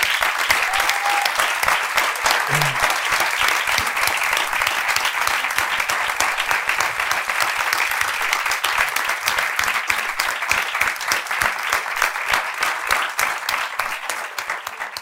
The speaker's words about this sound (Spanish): Quiero que le demos un fuerte aplauso a los tres chicos.